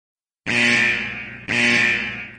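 A loud, harsh electronic depressurization alarm buzzer sounds twice in a row, each blast lasting about a second with a rich, raspy tone, prominent with no talking.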